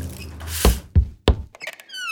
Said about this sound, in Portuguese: Dentro da pequena casinha amarela, Kátia varria o chão quando ouviu três batidas na porta.